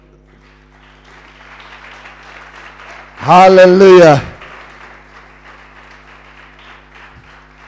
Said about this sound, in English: Can we give a powerful clap offering to the Lord?